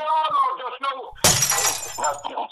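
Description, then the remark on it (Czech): A person talks, then a sudden loud crash of window glass shattering bursts in, apparently from stones being thrown at the window, its bright crunching debris continuing for about a second as speech carries on over it. “tam někdo hází do okem sklo, nebo co, nebo co se kameny, nebo co...”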